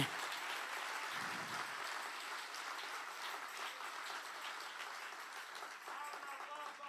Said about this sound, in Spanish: Si alguien lo cree, que le dé un aplauso fuerte al Señor aquí.